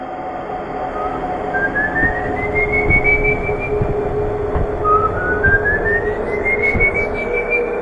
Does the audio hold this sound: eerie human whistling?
yes